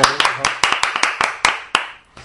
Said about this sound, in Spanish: Un aplauso para...